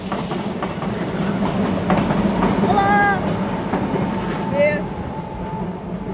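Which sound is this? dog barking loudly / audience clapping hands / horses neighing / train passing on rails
train passing on rails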